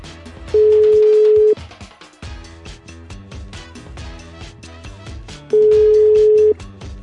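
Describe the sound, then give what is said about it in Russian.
Two long, steady ringback beeps from a phone line while calling the animal legal protection center hotline in Moscow, each about a second and spaced several seconds apart, sounding clearly over continuous background music. “Надеюсь, нам удастся дозвониться, потому что вроде как телефон круглосуточный, и мы можем звониться в любое время.”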